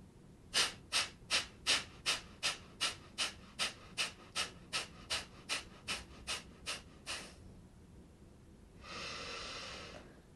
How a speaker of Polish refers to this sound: spokojny wdech i relaksujący wydech.